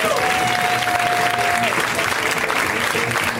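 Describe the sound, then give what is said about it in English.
Steady, dense applause from a live audience at a comedy show in Los Angeles as the first comedian is introduced, loud and continuous throughout, with a brief whistle-like tone near the start and a faint crowd murmur underneath. “Let's hear right now from Mr. Mike Kaplan, guys. Give it up for Mike!”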